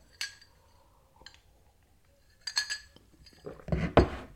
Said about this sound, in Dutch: neem weer even een slokje.